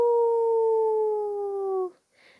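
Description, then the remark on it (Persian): A wolf lets out one long, loud, pained howl, its pitch sliding slowly downward for nearly two seconds before cutting off abruptly, followed by a brief soft rustle. It howls in pain after its tail is bitten hard from behind. “همین که گرگه دورخیز کرده بود تا بپره روی گوسفندا فرفری با شجاعت از پشت دم گرگه رو گاز محکم گرفت و گرگه یه زوزه دردناکی کشید و گفت او”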